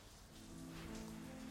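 rain falling

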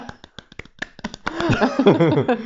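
applause

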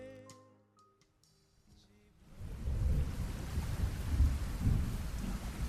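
heavy rain with thunder

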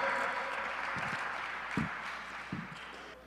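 audience clapping

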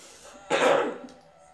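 throat clearing and coughing

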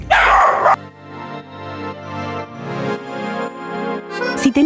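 dog barking

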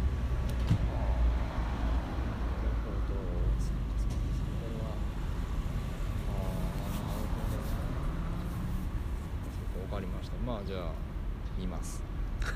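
passing car traffic

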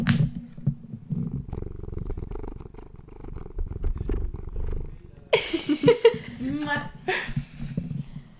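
cat purring

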